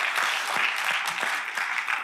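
Audience applause welcoming a guest being introduced, a steady dense wash of many hands clapping at moderate loudness, continuous throughout with no voices over it.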